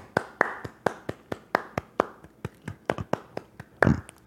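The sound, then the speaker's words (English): A single person claps steadily, about a dozen sharp, crisp claps in an even rhythm that quickens slightly near the end, with no talking, applauding the team's rookies getting on the board in the fourth quarter of a basketball game against the Timberwolves. “The second for for applause here.”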